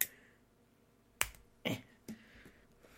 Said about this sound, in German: Hast du dir gerade eine Zigarette angezündet? Nee, ich habe so einen so. Pinüppel an meinem Feuerzeug, da spiele ich gerade nur mit rum. Hörst du?